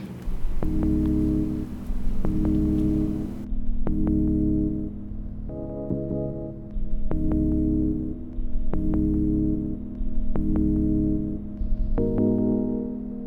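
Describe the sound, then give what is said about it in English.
A single one-shot synth sample is played as a melodic sequence of pitched notes in the G-sharp minor scale, each held for over a second with a sharp attack. It is loud and steady, with no voices. “I then took that that one shot sound and then played it in different in different notes.”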